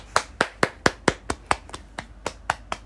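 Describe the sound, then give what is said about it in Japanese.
Steady, evenly paced hand claps, about a dozen sharp, crisp slaps over a few seconds in a regular rhythm, with no voices or cheering audible. “大歓声ありがとうございます”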